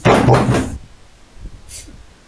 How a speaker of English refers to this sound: I'm closing the door now.